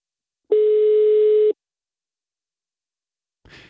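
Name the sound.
telephone ringback tone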